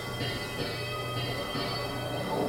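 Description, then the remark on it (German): A bell clangs repeatedly in a steady rhythm, its ringing tones overlapping and sustaining between strikes, moderately loud and continuous, as a watchman in the town of Duderstadt rings the alarm. “Glocke ertönt.”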